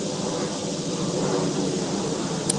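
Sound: airplane flying overhead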